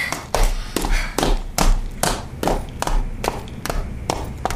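Quick footsteps clatter down a staircase, about ten sharp, evenly spaced steps with hollow thuds, close and fairly loud, with no voices.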